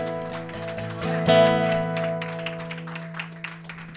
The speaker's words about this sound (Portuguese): Se você crê, aplaude o Senhor.